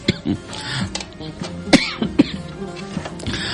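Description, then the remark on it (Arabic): A few sharp coughs and throat-clearing sounds coming in quick bursts with short pauses between them, with no speech. “نشيل كحه شويه”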